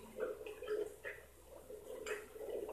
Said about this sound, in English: So we're getting tapping through. There's nothing beneath us, so I'm, I'm satisfied that there's no one on the floor below because we're all here.